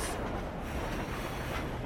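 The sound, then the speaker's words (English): A steady, continuous rumble and rattle of a train moving along the tracks, heard from inside a carriage at moderate loudness, with no voices. “I, I'm not sure which train I'm on or where I'm going.”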